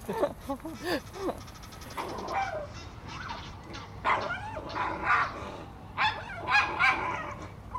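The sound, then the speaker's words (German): A dog barks in a series of sharp, irregular bursts, some higher and yelping, outdoors on a walking path, with quiet gaps between barks. “Wir haben jetzt einen äh, unangeleinten Hund kommen sehen, einen mittelgroßen Hund.”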